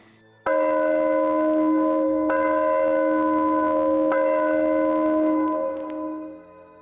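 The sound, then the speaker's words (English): Church bells ring out in three heavy, evenly spaced strikes, each leaving a rich, humming tone that overlaps the next before slowly fading away. No one speaks. “Someone is ringing the church bells.”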